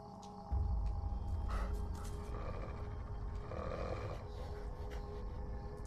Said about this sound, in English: There's a wolf. Yeah, I'm getting to that. No, there's a wolf right behind you.